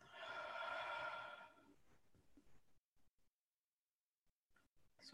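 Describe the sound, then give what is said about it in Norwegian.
A long, deep breath out during a guided breathing exercise, loud at first, gushing and breathy, then trailing off into a few soft rustles and near silence. “Så vi trekker pusten dypt inn og slipper ut igjen.”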